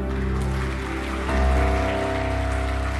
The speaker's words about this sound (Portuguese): Agora, você não pode deixar de aplaudir a pessoa que está do seu lado.